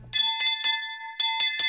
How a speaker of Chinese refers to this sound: 就在这个时候，家中响起熟悉的门铃声：